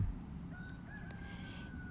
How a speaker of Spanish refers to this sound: Y ahí hay una gallina, un gallo.